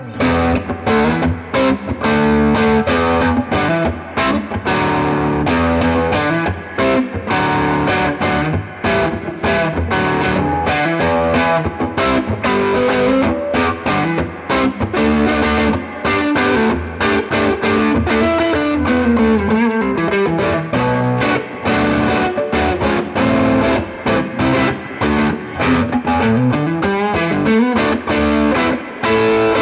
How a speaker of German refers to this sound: Machen wir direkt Zerre? Ja. Zerre.